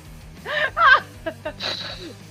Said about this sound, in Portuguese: Eu, eu, eu tô respirando, bicho, porque eu não sei o que dizer.